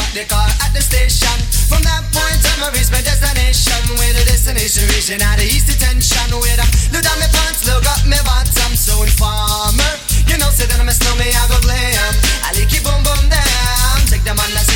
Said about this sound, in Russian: …, ну да, … его называли по-русски с песенкой «…». Ну, когда-то была хитом.